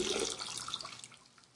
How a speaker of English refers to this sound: Can't hear you. I'm, well, it's because I'm urinating.